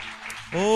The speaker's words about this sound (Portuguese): Amém, queridos? Aplauda ao Senhor nessa noite. Aleluia!